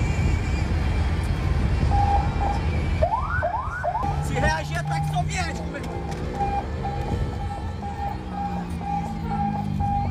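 police car siren

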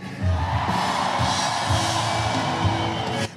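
audience shouting

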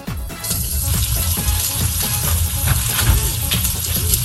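meat sizzling

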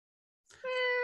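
cat meowing

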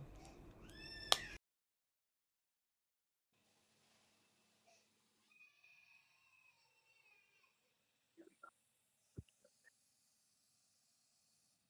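cat meowing

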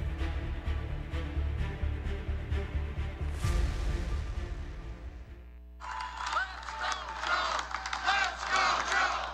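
crowd chanting

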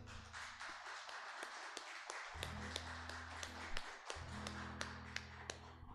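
audience applauding

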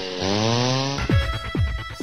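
chainsaw running

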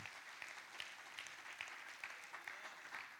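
audience applauding

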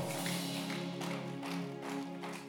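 audience clapping hands

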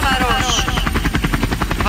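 helicopter rotor sound effect

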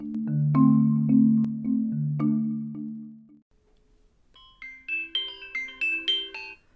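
phone ringing

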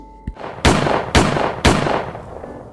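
starting pistol shot

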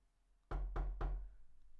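knocking on a door

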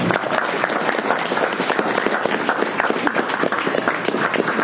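audience clapping

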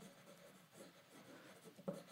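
pencil drawing on paper

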